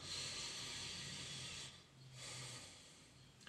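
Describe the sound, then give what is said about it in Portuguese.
A long, airy breath drawn in through the nose, a brief pause, then a second breath out, hissy, with no talking; a simple beginner's exercise of concentrating on the breath. “Então, respiração pelo nariz”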